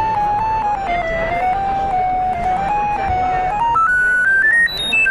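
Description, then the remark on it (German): A light detector, its button held down, emits a steady electronic tone with buzzy harmonics that wavers around one pitch, then climbs in steps to a much higher pitch near the end; the brighter the light, the higher the tone. Faint background noise, no one speaks. “Und wenn man es gedrückt hält, dann, kann man, dann, dann piept es in den verschiedenen also Tonen.”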